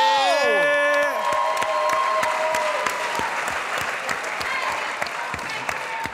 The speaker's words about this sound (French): Vous avez été incroyable pour vrai. Une bonne main d'applaudissements pour vous autres. Let's go!